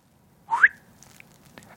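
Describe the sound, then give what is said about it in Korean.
A single short rising chirp, bright, made by a voice imitating the sound of a charger cable being plugged in, followed by faint quiet clicks and near silence. “일단 충전 끼는 소리입니다.”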